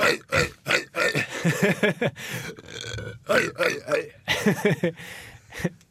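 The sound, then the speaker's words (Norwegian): A voice makes a string of exaggerated, deliberate comic burps, several short croaking belches in an uneven rhythm, loud, with brief vocal noises between them. “Men jeg Jeg kan uh, eh, ha en morsom uh, måte å rape på som vi kan erstatte det.”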